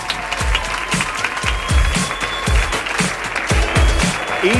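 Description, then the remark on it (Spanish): A crowd applauds loudly and steadily, dense clapping for several seconds, with a few sharper claps standing out and faint voices mixed in; the audience at the Diputación is applauding the technicians. “Y quiero pedir a todos los presentes un aplauso muy fuerte para nuestros técnicos aquí en la Diputación,”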